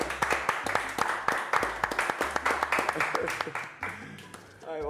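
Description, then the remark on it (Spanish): An audience applauds a guest on a show with a steady patter of sharp, overlapping claps that keep up for several seconds, then thin out toward the end as a voice begins. “Un aplauso.”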